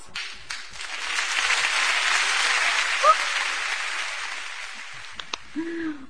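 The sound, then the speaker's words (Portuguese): A round of applause welcoming a guest, dense and steady clapping that swells and holds for several seconds before thinning out, with a few brief voice-like tones near the end. “paulistana desbravando o Nordeste, uma salva de palmas.”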